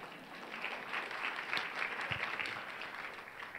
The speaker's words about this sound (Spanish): Muy bien, gracias, un aplauso, ¿ya?